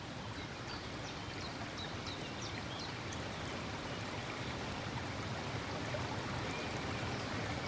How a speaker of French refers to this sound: On est au bord d'une rivière. J'adore l'eau.